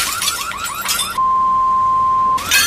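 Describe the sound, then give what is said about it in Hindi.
Car window glass is deliberately smashed, crunching and cracking in a quick series of sharp, bright impacts without the whole pane falling out, then a steady electronic beep tone holds for about a second before the glass noise briefly returns. “अब ये बस बस ये पूरा पूरा शीशा नहीं गिरा”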